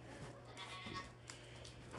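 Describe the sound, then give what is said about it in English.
A goat bleats a few times in short, wavering cries, fairly faint, over a steady low background hum with no talking. “Who's talking to me? Who's talking to me?”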